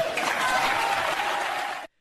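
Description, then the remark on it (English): A studio audience applauds steadily, a dense wash of many hands clapping at once that holds at an even level for nearly two seconds before cutting off abruptly. “And of course, the barking, clapping seals in the audience just applaud right along to that.”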